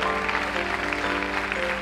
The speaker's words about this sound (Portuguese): Se você tem motivos para dar honra, glória ao Senhor, você poderia levantar a sua voz, levantar a sua mão, aplaudir esse que é o único digno de receber toda a honra, toda a glória e todo o louvor.